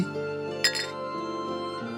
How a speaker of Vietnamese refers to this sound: Chùm bánh tiến lại, cụng ly với kép sĩ.